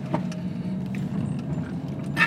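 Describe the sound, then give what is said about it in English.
A steady low rumble of a car engine and road noise as the car drives into a golf clubhouse parking area, with faint jingling like keys and small clicks, rising into a brief hiss of tires on gravel at the end. “So driving up here now, it's uh, I'm driving into the clubhouse. I'm going to stop the audio as soon as I turn off the car, which will be very soon.”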